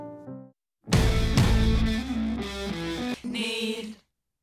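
A short burst of loud, distorted music with dense, effects-heavy layers and sustained tones, following a brief soft chord; it cuts off abruptly after a few seconds.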